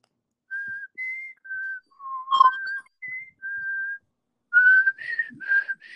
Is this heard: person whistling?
yes